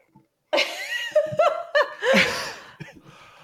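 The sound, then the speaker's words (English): A drawn-out voiced yawn that rises and falls in pitch, broken by breathy, laugh-like bursts, then trailing off into quieter breaths. “Oh, yeah, you got me yawning.”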